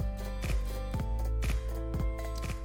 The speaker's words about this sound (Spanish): Ahí está la musiquita.